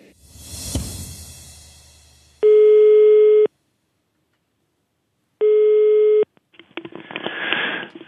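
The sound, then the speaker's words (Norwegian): A telephone ringing tone sounds twice as a call from the programme Mellom himmel og jord connects to Norges kristne råd, two loud, steady electronic tone bursts about a second long with a gap of silence between, framed by brief rustling noise. “som ringer fra mellom himmel og jord.”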